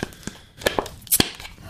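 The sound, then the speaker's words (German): Paper wrapping is crinkled and torn off a bottle of non-alcoholic Surfer Summer Ale from a brewery on Rügen as it is opened, a quick series of sharp rustling rips with brief pauses between them and no talking. “Das ist auch in diesen Papier eingewickelten Flaschen.”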